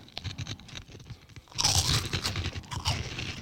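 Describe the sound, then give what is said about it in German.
Someone crunches through crisp, airy Fridays Original onion ring snacks from the USA, a series of dry, crackly bites and chews that turn louder and denser halfway through, with no talking. “Fridays - Onion Rings Original”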